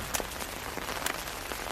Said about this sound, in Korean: 무슨 비가 이렇게 많이 내리는 거야? 비가 와서 그런가 찾아오는 사람이 한 명도 없구나